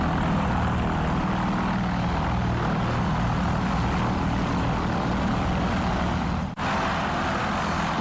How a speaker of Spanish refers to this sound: Bueno, estamos escuchando, fíjense, no es ni moto, ni avión, ni avioneta. Eh, ¿Qué otro método de transporte podría ser? Ni jet ski, no, no, no es. Es un dirigible. Em, em, nuestra estrella de hoy se llama Pathfinder 1.